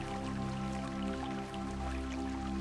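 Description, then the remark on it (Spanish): Steady water flows and splashes from the several outlets of a fountain, a continuous wash of drips and trickling with no break, alongside a low sustained hum. “Solo observo un suministro ilimitado de energía a través del agua, que fluye a un ritmo constante, envolviéndome con su sonido”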